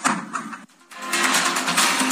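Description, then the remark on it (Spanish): Ministerial police force open a door with tools at hand while serving a search warrant on a property of PRI national president Alejandro Moreno: a harsh, steady grinding and scraping of metal breaks off briefly, then resumes louder and continues without letup. No voices are heard. “Y como no abrieron, bueno, pues ellos agarraron lo que tenían ahí a mano para abrir la puerta.”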